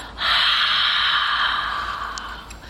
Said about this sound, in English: Inhale through the nose, deeply and fully. Open the mouth and whisper the sound ha.